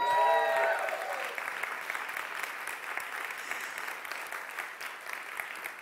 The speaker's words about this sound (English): honestly, the applause goes right back to you because you all participated in something very, very important in our all church survey.